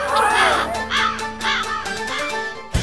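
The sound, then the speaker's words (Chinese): A crow at the Beijing Zoo, a neighbour of the pandas, caws repeatedly, a series of harsh, raspy calls in an uneven rhythm, fairly loud over a steady background hum, ending with a brief low thump. “罪犯竟然是熊猫的邻居——北京动物园的乌鸦。”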